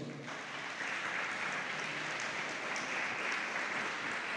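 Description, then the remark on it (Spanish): A church audience claps loudly and steadily for the Lord, a dense wash of many hands that holds at an even level for several seconds without any voices over it. “Dele palmas fuertemente al Señor.”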